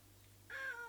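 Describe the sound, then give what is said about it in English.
A single cat meow breaks in halfway through, a short drawn-out cry that tapers off, heard alone over a faint steady low hum. “They both heard a cat in the forest”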